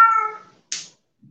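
A cat lets out one clear, drawn-out meow that fades away, followed by a short breathy rush of noise and a faint low thump.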